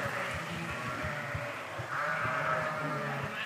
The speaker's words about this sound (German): Ich bin mittlerweile wieder auf meinem Bike, fahre hier gerade an einer Herde Schafe vorbei. Oh Gott, ah, das ist ein Schäferhund. Der jagt die gerade alle in eine Richtung. Ohne zu bellen, beeindruckend.